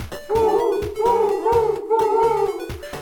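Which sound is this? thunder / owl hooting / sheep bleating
owl hooting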